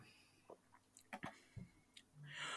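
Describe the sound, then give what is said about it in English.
Someone sips a drink: a few soft wet mouth clicks and swallows, then a short airy slurp at the end. Quiet, with no talking. “Take a sip.”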